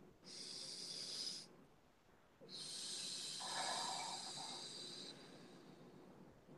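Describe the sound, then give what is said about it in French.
A deep breath taken aloud: a short airy inhale, a brief pause, then a longer rushing exhale. No one speaks. “Alors, une respiration.”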